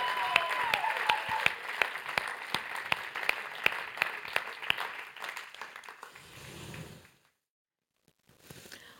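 An audience claps steadily for about six seconds, a dense patter of many hands with sharp individual claps standing out, then it fades into a low murmur and falls silent.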